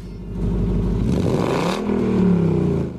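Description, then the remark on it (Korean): A classic 1968 Ford Mustang engine idles with a low, lumpy rumble, then revs up loudly, its pitch rising and holding in a strong throaty roar. No one speaks. “It is a 1968 Ford Mustang.”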